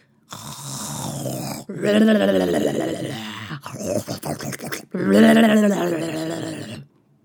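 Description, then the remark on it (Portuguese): Loud, exaggerated snoring imitated by a human voice, standing for a wolf asleep in a bed: three or four long, rattling, forceful snores in a row, with a choppy snorting stretch between them. “Ele foi passando pela casa da vovó como fazia habitualmente e escutou um roncado diferente estranhou e pensou: Oh, a vovozinha está roncando tão alto.”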